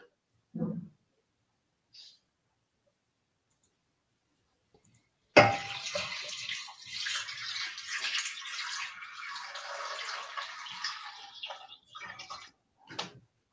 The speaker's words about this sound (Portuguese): Vou colocar aqui também e acrescentar água. Tá? Fria? Eu coloco fria